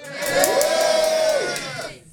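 An audience cheers and whoops together in a loud burst, voting on which of two people's noses is closer to the host's, a shared rising-then-falling yell over broad crowd noise, lasting about a second and a half before fading out.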